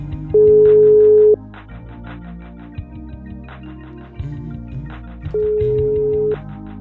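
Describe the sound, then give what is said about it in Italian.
Two long, steady ringback tones from a telephone call, each lasting about a second and spaced several seconds apart, sounding over quiet background music with no one speaking. “Sta squillando, eh.”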